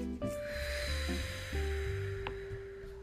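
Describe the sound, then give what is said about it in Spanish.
A long, steady breath is slowly exhaled during a guided meditation with a soft airy hiss, lasting about three seconds over gentle sustained ambient music tones, with no talking. “Exhalamos.”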